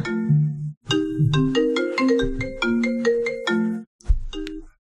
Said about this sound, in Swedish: Eh, uh, nu ringer det, vänta.